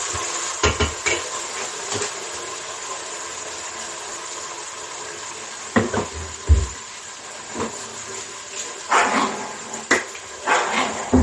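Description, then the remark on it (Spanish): An excited dog, nervous at the smell of meat being cooked, gives scattered short yips and barks, mixed with occasional kitchen clatter of pots and utensils, over a steady background hiss. “los perros no son veganos. Cuando huele a chichi, se pone nervioso.”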